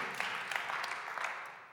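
A crowd applauding at an ICF church service in Zürich, a steady patter of many hands clapping at once, fairly soft, continuing throughout without anyone speaking.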